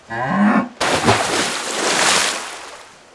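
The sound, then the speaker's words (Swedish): A cow named Klinga gives one short moo, immediately followed by a loud, sustained rush of water that gradually fades, as the cow steps into the water and swims out into a strait. “När Klinga är halvvägs ute i sundet ser mamma från bagarstugan vad som händer och ropar efter sin kossa.”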